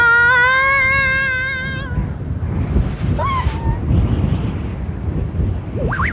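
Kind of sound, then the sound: nature, strong wind blowing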